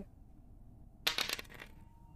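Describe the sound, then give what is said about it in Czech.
Dice rattle across a hard tabletop in a quick burst of sharp clicks and clatter lasting about half a second, then settle into quiet room tone. “Říkám lepší kostka.”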